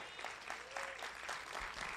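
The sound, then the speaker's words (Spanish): An audience applauds the Lord Jesus after a Bible reading, many hands clapping in a dense, steady wash of claps that holds at an even level for the full two seconds. “Dan un aplauso al Señor Jesús por esa palabra, por favor.”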